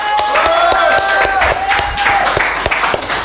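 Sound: audience applause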